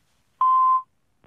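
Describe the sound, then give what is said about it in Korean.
A single steady electronic voicemail beep on a phone call placed during Park Myung-soo's Radio Show sounds clearly for about half a second and then stops, followed by a faint brief click; no one speaks. “아, 메시지를 남겨야 돼요 그렇죠.”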